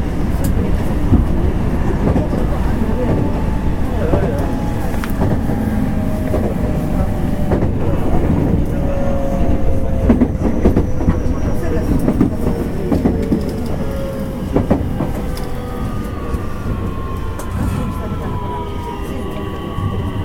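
A JR 225 series Special Rapid (Shinkaisoku) electric train runs steadily from Ashiya to Osaka, Japan, with a loud continuous rumble, repeated rail clatter, and faint high motor whines that rise and fall as it speeds along.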